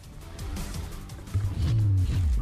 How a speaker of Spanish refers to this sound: Abre el carburador, eleva las revoluciones Disfruta del sonoro rugir de los motores clásicos.